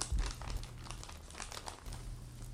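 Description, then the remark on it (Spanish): Dry paper, worn at the corners and quite dirty, crinkles and rustles as an old letter is unfolded in a patio beside a small bonfire, a series of soft crackling bursts over about two and a half seconds with a low steady hum underneath. “Abrí la carta y la leí en voz alta.”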